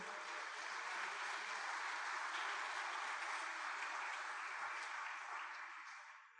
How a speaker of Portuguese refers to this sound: Levante a sua mão aí, dá um glória a Deus, aplauda o Senhor porque ele está aqui conosco.